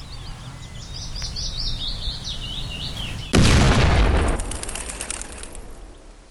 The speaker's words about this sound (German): Bepackt mit Sprengkapseln, einer Feder und seinem Werkzeug, macht sich Georg Elser auf den Weg zum abgelegenen Obstgarten seiner Eltern. Dort kann er die ersten Tests zur Explosion durchführen, ohne dass ihn jemand hört.